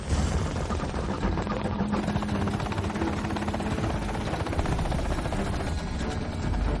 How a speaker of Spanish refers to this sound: El helicóptero inicia el descenso cerca del campamento 2.